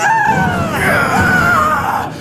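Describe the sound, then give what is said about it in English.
A woman screams frantically in a loud, sustained, wavering shriek lasting a couple of seconds, raw, with a rough low rumble underneath. “Una lunged at him, with her hands outstretched, clawing frantically for his throat, screaming.”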